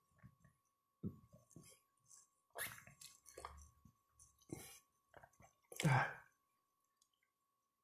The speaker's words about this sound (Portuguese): Essa pausa da água